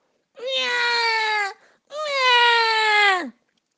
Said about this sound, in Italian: Il bambino aprì prima un occhio e poi l'altro, mosse un po' la bocca, poi un altro po' e iniziò a piangere come un disperato.